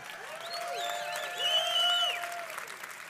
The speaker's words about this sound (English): This is how amazing this is. you should probably clap more than you just did for 1,900 people getting saved. Do you understand?